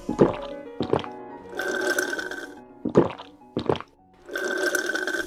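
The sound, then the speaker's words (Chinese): Someone drinking juice: two quick gulping swallows followed by a longer hissing, bubbly slurp of liquid, the whole pattern happening twice in a row with no talking. “你喝果汁的声音太好听了，我好馋呀，也好想喝呀。”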